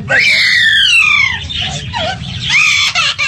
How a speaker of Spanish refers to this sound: Se los juro por mi madre, es un loro. Está llorando como un niño porque ay, le pegaron.